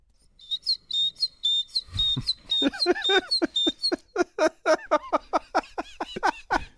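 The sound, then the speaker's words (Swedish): A man whistles an imitation of a great tit's song, bright repeated high notes in quick two-part phrases, then shifts into rapid clicking, chirping vocal sounds, fairly loud with no talking. “Här briljerar han då med, med, med talgoxen.”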